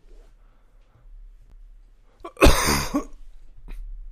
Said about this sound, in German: Ähm, muss schon wieder husten.